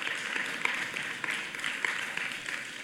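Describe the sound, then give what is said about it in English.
A church audience claps during a sermon in a dense, steady wash of many hands, sustained at an even level for a few seconds with no voices over it. “Amen. We'll take some claps.”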